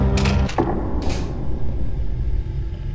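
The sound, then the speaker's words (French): A heavy mechanical door in a video game grinds open onto a tunnel with two harsh, clanking bursts of metal and creaking gears, then settles into a low, steady rumble. It is loud, with no voices. “On a à peine le temps de lire une note qui nous indique qu'il ne faut surtout pas rentrer dans le tunnel, que l'on est déjà en train de franchir la porte.”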